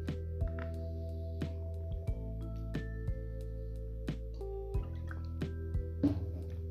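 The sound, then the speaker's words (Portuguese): Someone sips water in small, quiet pulls, with soft wet clicks and swallows spaced irregularly over several seconds, all above a steady low background hum and no talking. “Vou não um gole numa água.”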